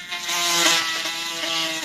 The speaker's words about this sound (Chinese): 巴布，这模型不错吧？装载 XV 七七型单体发动机的遥控特技飞机。